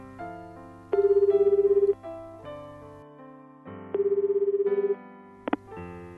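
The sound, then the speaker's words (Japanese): A mobile phone call rings twice on the line, each burst a rapid trilling tone lasting about a second, over steady background music, followed by a couple of quick clicks. “寂しかったたった一人の部屋に帰るのが嫌だった私は思わず携帯電話をプッシュした”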